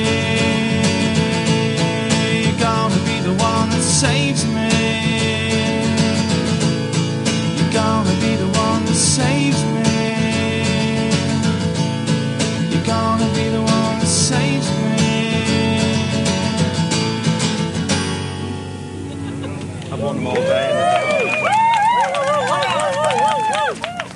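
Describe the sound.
A live rock song plays loud and full with steady band sound and crowd noise mixed in. The music cuts off near the end and a man starts talking.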